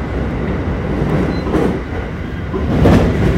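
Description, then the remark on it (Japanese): A steady, loud rumble of a train crossing a long steel railway bridge over a river, heard from inside, with a dense low roar and faint rhythmic clatter that swells toward the end. “あこれで今多分これがね何川だろう荒川になるのかなうんちょっと川の名前わかんないけど利根川かなあちょっとわかんないですね、まあ、今長いねえー鉄橋を渡っておりますはい”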